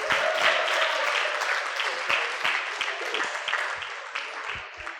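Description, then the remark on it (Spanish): A group applauds the young people for several seconds, a dense patter of overlapping hand claps holding at a fairly even loudness with a few sharper individual claps standing out. “Muy bien, un aplauso para los jóvenes.”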